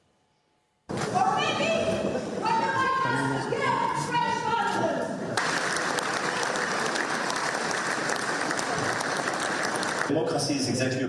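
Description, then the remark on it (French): A loud, agitated crowd of protesters heckles a visiting French leader in the Netherlands, shouting and yelling over one another, with raised voices rising above a dense wall of noise that sounds like clapping and commotion, continuing without a break. “Et là-bas, patatras, il a été chahuté par des manifestants.”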